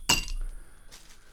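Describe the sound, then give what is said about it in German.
A sharp clink of prepared ice cubes dropping into a glass while mixing a drink, one bright impact followed by a short ringing tail and a faint second rattle, with no talking. “Und dann noch Eiswürfel. Die habe ich schon entsprechend vorbereitet.”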